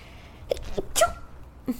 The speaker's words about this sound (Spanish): ¡Qué envidia, güey! Con ese estornudo. Siempre es de las cosas que más quisiese yo en mi vida, güey, estornudar así. Lo voy a dejar en el episodio porque se escucha bonito.